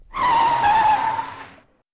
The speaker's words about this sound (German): Der Wagen hielt an, und ich stieß mit dem Kopf an die Kopfstütze.